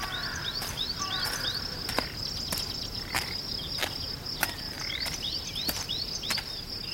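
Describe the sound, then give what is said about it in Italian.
Footsteps crunch over dry, crumpled leaves in an autumn wood, a sharp irregular crackle every half second or so, with steady insect chirping and faint bird calls behind them. “L'aria fresca dell'autunno, il fruscio dei rami, il sibilo del vento, i passi sulle foglie accartocciate, il silenzio.”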